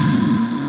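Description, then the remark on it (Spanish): A single brief, rumbling snore from a motorbike owner sleeping peacefully, fairly loud, with a steady droning buzz throughout and no talking. “Y cuando su dueño sabe que la tiene asegurada con línea directa duerme tranquilo y suena así.”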